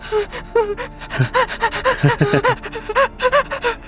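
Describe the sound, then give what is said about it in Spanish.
A voice imitates a child trying to hold back tears, a rapid series of sharp, shaky gasping breaths and stifled sobs in an uneven rhythm, fairly loud. “Y corre así como, así como cuando está como, eh, cuando los niños como que contienen la, el llanto, está como”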